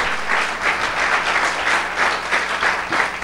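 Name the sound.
audience applauding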